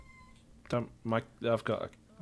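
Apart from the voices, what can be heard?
cat meowing loudly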